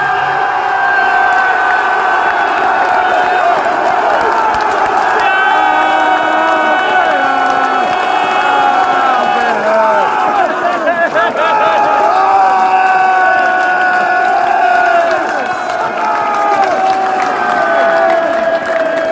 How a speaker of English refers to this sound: as you may have guessed, that was the final whistle.